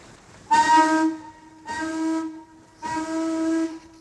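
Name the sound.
steamship whistle blowing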